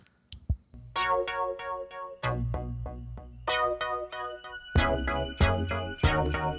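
An upbeat Christmas song of bright, plucked chords over a steady low beat, with a shimmering jingle of sleigh bells joining in partway through and ringing on to the end. No one speaks.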